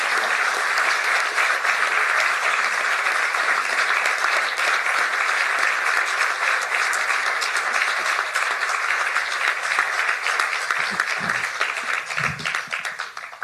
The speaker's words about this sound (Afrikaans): Eh, ek dink die applous sê alles. Baie dankie.